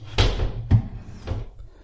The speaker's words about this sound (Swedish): Jag tror jag öppnar jag tror det blir bättre, mindre eko om jag öppnar bokhylledörrarna av glas.